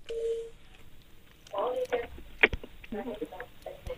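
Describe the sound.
A single steady telephone tone sounds for about half a second, followed by a sharp click as an incoming caller's line connects and faint, narrow-band voices come through.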